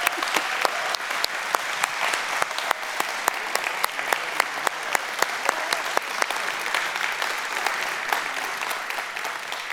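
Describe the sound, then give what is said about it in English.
Steady applause from a sizable group, many hands clapping in a dense, continuous patter with sharper individual claps standing out, no voices on top. “Hey, let's give her a hand.”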